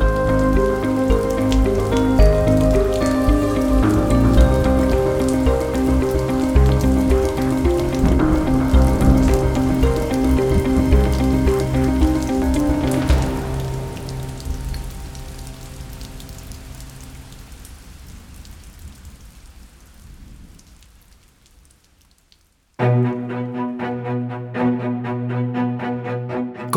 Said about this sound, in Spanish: La lluvia había empezado a caer de nuevo.